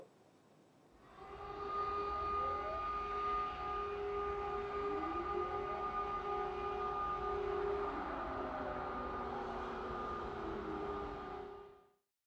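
Wailing civil defense air raid sirens sound in Kyiv, Ukraine, during the Russian invasion, continuously for about eleven seconds, their sustained tones sliding slowly up and down and overlapping over a steady noisy background.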